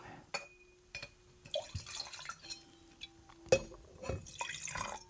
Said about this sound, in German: Gießt du mir nochmal was von der Auslese ein?